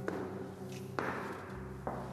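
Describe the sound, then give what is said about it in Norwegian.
Footsteps climbing a staircase in a building beside Oslo City Hall, Norway: three slow, evenly spaced treads with soft thuds over a steady low indoor hum, with no voices. “Opp ei trapp.”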